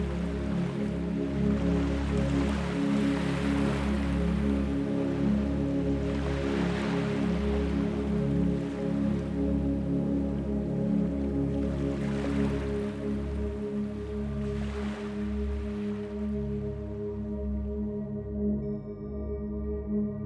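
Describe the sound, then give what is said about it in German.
Ocean waves roll onto the shore in slow, recurring swells every few seconds, a soft continuous wash over a steady low humming drone, with no voices. “Einschlafen mit Meeresrauschen”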